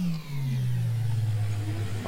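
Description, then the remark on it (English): A loud engine roars steadily for about two seconds as a sound effect for a make-believe time machine ride, its deep droning pitch sliding slightly lower as it goes, with no voices over it. “we're gonna have to ride the Hustle Share Time Machine”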